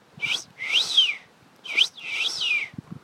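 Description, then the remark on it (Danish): A person whistles an imitation of a Eurasian wigeon's mating call, which the bird uses to attract a female's attention: two clear, high two-part whistles, each a short rising note followed by a longer falling sweep, fairly loud. “Øh, for eksempel øh, pibeandens øh, parringskald.”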